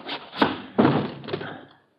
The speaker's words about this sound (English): The gun butt behind my ear knocks me to the floor real fast.